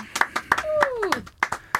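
Sharp hand claps from a small group, coming in a quick uneven rhythm of about a dozen beats, with a brief falling vocal whoop sounding between them.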